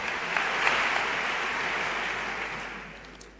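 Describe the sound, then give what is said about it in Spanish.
Sustained applause from a large audience at a Holy Week pregón (proclamation speech) about the Santo Entierro Grande, the first ovation for the pregonero. A dense wash of clapping holds steady at a loud level and then gradually begins to fade toward the end. “Toma agua el pregonero, continúa Enrique Casella después de esta primera ovación.”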